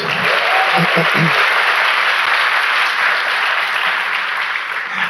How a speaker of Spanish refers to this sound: Ya, chicos, gracias. Aplauso para ellos.